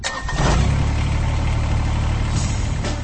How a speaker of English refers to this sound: That's the sound of a Kubota BX Series, America's top selling subcompact tractor for over 11 years running.